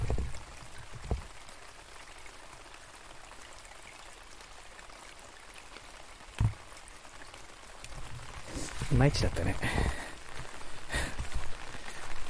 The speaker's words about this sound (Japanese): 今日はねこの小川の流れが小さいかなちょっとそれでは聞こえますでしょうか